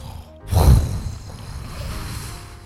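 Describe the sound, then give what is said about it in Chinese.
A voice imitates ocean waves crashing in: one sudden, loud, breathy rush that swells and then trails off into a long, softer hiss, with no words spoken. “你在模在模仿那个海浪冲过来的声音”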